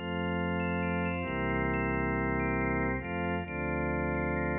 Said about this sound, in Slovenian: Poročna koračnica izzveni v polnem zamahu aplaus in navdušeni vzkliki ljudstva. Na to za trenutek vse potihne.